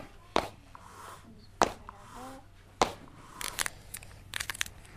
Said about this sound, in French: Un crayon gris que j'ai taillé.